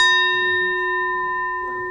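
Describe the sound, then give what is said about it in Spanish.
A singing bowl rings with a steady, sustained tone and shimmering overtones, slowly fading over the whole moment; no voices are heard. “El, cuenco, porque tiene el sonido que representa la vacuidad”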